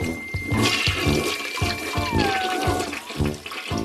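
A smart toilet flushes with a loud, steady rush of swirling water, broken by gurgling pulses and a thin rising whistle as the tank refills, with no voices over it.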